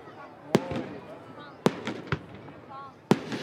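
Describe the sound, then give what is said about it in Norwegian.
New Year fireworks rockets in Norway explode in four sharp, loud bangs at uneven intervals, each a sudden crack that fades quickly, over a steady background murmur of indistinct voices. “Det er vel lite som signaliserer et nytt år på en bedre måte enn lyden av raketter.”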